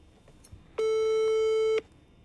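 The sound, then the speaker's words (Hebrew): A single steady telephone ringback tone sounds while a call is placed to a friend who is about to answer, one clear electronic beep about a second long, loud against a quiet background with no talking. “הוא יודע שאנחנו מתקשרים. שומע אותו? בטח. שומע. הוא שומע. תכף הוא יענה.”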